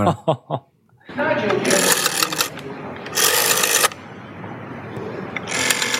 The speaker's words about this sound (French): c'est Un téléphone à cadran.